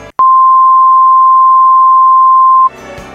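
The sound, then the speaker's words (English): A steady, pure sine-wave tone from an oscillator at a single pitch holds unwavering for about two and a half seconds, loud and clean, starting with a click and cutting off abruptly. “an oscillator which is always spinning in the same speed with a high point and a low point would be displayed by a sine wave, which is always having the same travel from value to value and would sound like this.”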